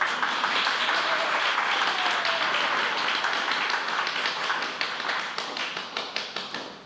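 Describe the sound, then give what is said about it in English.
A live studio audience applauds on cue when an applause sign lights up, a dense wash of clapping that holds for several seconds, then thins out toward the end as individual claps become distinct and fade away. “So when it uh, lights up, you applaud, and when it goes off, you stop applauding.”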